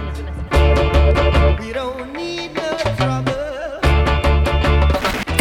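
A reggae song plays loud, with a steady bass line, choppy offbeat rhythm and a vocal melody weaving over the full band throughout.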